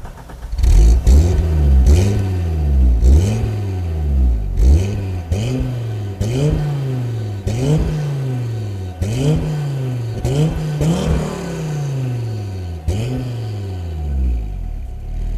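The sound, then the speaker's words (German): The engine of an original Audi Sport quattro car revs repeatedly and loudly, each blip rising sharply then falling back, in a steady rhythm of about a dozen throttle bursts with no talking. “Ja, es ist der Audi Sport Quattro. Ein echter Sport Quattro.”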